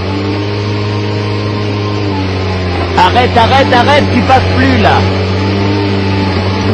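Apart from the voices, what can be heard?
truck engine revving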